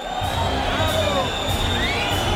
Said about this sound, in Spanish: Y se escucha prácticamente toda la plaza, otra, otra.